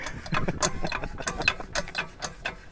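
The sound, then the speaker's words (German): A hand water pump being worked hard to draw water: rapid, irregular metallic clanks and ratcheting squeaks, about a dozen strokes in quick succession, fairly loud with no voices. “Man muss mit äußerster Brutalität gegen diese, gegen diese Pumpen vorgehen.”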